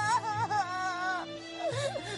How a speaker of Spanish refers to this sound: ¡Qué pena! Goku está llorando. Eso no tiene remedio. Aunque Goku sea muy fuerte, él todavía es un niño.